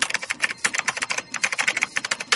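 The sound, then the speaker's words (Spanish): Rapid, steady computer keyboard typing by an office worker with a disability, a dense run of crisp key clicks with brief pauses between bursts, no voices. “Y así suena un oficinista con discapacidad trabajando.”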